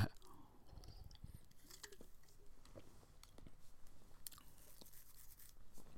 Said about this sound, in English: hold on I'm taking a sip hold on on my beer hold on.